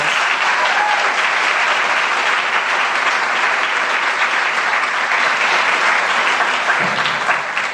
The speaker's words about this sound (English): So please give Jordan a big round of applause.